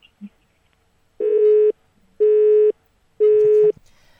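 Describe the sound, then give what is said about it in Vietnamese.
A telephone busy tone after a dropped call repeats three times, each steady beep lasting about half a second with equal pauses between, loud and clear with no talking over it. “có lẽ là tín hiệu cũng không được à”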